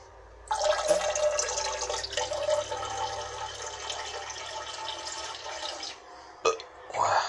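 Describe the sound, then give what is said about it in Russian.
A tap gushes on abruptly and runs in a steady splashing stream for about five seconds into a ladle, filling a basin, then cuts off, followed by a brief clunk near the end. “Да нет, тут пошло. Подставлю ковшик. То есть набирается тазик.”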